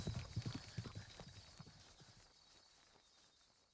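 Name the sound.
horse hooves clip-clopping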